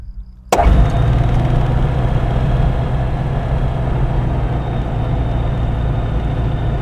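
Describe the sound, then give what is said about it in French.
A light aircraft's piston engine, started with ignition circuits 1 and 2 on and the throttle fully reduced, catches with a sudden burst after a brief quiet moment, then settles into a steady, loud, rumbling idle that continues to the end, with no voices. “Les circuits d'allumage 1 et 2 sont en marche. Tac, On n'a pas besoin de pompe à essence. Les gaz sont tout réduits. Et on démarre.”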